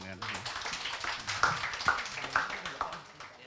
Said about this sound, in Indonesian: Nah, kita blog writing competition selama 10 hari tanggal 20 sampai 30 Juli itu kita dapat peserta 70 orang. Tepuk tangan dulu dong.